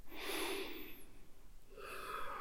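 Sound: deep breath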